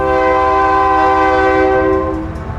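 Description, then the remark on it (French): A loud train horn sounds in one long, steady blast, the last and longest of four, as the train reaches a level crossing, with a low rail rumble underneath, easing off slightly at the very end. No voices. “À quand il arrive au crossing, c'est 4 jours. Puis le plus grand coup, c'est le dernier.”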